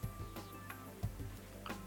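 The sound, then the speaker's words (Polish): Small, faint plastic clicks as a smartwatch's home button (crown) is pressed twice to bring up the last used app, a few soft taps spaced apart over a low steady hum, with no one talking. “Jeszcze dwukrotne naciśnięcie, tak jakbyśmy w iOSie weszli sobie na e, mm, tam pasek z aplikacjami.”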